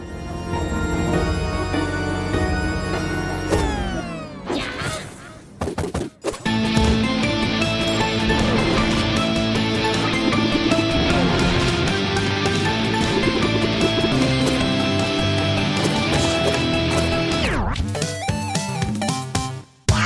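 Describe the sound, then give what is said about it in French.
Upbeat, bouncy chiptune-style music from the trailer for the retro video game Alex Kidd in Miracle World, a version released in June 2021, plays loudly and continuously, with bright melodic lines over a steady rhythm and a couple of brief transitional breaks, no voices. “Pour les, nostalgiques, voilà, ils auront reconnu euh, la musique euh, de, ce, de l'Alex Kidd de leur enfance, peut-être.”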